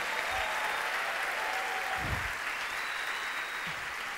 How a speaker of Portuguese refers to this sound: Levante um aplauso bem forte e dê um glória a Deus. Aê, igreja. A igreja nossa é barulhenta, então não é?